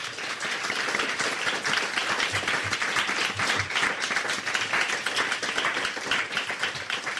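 A crowd applauds steadily at a live recording of The Naked Scientists at the Cambridge Science Centre, dense clapping from many hands filling the space at a strong, even level with no voices standing out, sustained throughout.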